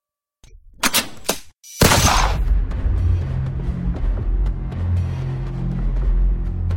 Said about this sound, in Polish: Gdy usłyszałem strzał, zerwałem się na równe nogi. Od razu byłem przekonany, że coś się stało.